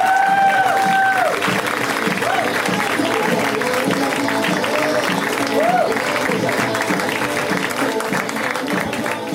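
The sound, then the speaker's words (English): A crowd claps and cheers steadily for several seconds as comedian Howard Kremer is introduced at a comedy show, a dense, loud wash of applause with a few high whoops rising above it and scattered voices mixed in. “You guys, give it up for Howard.”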